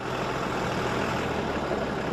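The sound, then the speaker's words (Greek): Military snow-clearing machinery runs steadily, a loud, continuous low rumble with a broad mechanical roar and no pauses, as it clears mountains of snow at the exits of the Attiki Odos motorway. “στρατιωτικά μηχανήματα προσπαθούν να καθαρίσουν βουνά χιονιού στι εξόδου τη Αττική Οδού.”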